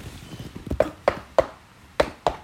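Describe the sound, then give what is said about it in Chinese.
Five sharp knocks on a door, a quick group of three followed by a pause and then two more. The knocks are crisp and hollow, with soft faint tapping just before them and no talking. “的敲门声。”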